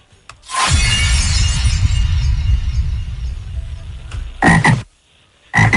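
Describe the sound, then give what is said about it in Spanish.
A sharp shattering crash of a red ball being broken, followed by two loud frog croaks with a short pause between them, the frog being the surprise inside the ball. No one speaks over the sounds. “traía una rana.”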